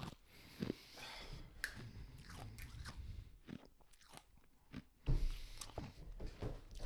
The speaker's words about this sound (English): I'm chewing an ice cube because I was dying.